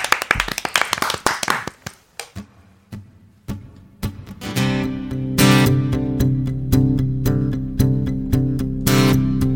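An audience claps in a dense burst that quickly thins to a few scattered claps, then a band starts playing its own song live on the Korean radio show Mister Radio, with loud sustained chords and sharp rhythmic hits.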